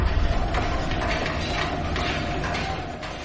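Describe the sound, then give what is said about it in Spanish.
Hammer blows knock at uneven intervals as men build a last siege engine late into the night, over a steady, dense clatter of creaking wood and grinding mechanisms, a busy construction din with no voices. “Los golpes de los martillos resuenan bien entrada la noche.”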